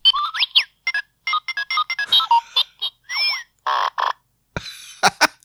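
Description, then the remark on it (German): A rapid string of electronic robot beeps, chirps and warbling sweeps from a novelty robot-shaped soap dispenser as it is pressed or shaken, loud and varied in pitch, ending in a few sharp clicks. No one speaks. “Und wenn man da drauf drückt oder dran wackelt, mach ich jetzt mal, dann macht der lustige Geräusche immer andere.”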